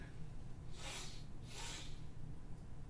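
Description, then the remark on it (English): A voice imitates trolls sniffing loudly: two long, breathy inhales through the nose, with a short pause between them over a low background hum. “All of a sudden, uh, two of the trolls kind of their ears kind of prick, and they start sniffing.”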